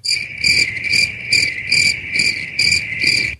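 Crickets chirp steadily over a constant high-pitched trill, with brighter bursts pulsing in a regular rhythm about twice per second. No voices, just the insects.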